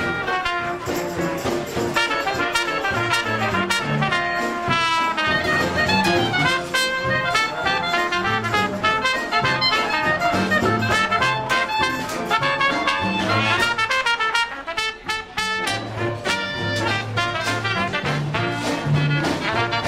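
A loud, continuous New Orleans-style jazz recording played on air, with dense horn lines, clear harmonic melodies and a steady low bass pulse, playing throughout with no talking.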